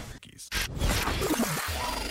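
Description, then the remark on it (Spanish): A few quick, crisp scissor-snip sound effects cut sharply at the start, fairly loud, marking a break in the show Autos al Cielo, then give way to murmuring voices that carry on to the end. “Oye, salieron las tijeras mágicas.”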